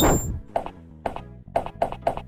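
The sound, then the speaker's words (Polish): Hammer strikes from a video game, the player using a hammer as a handheld weapon after running out of ammunition: a noisy burst, then about five sharp, ringing metallic whacks. The first few are evenly spaced, and the last ones come quicker. No talking. “można młotem, ale... Skończyła się amunicja, no to trzeba będzie Jeden hammer i nic.”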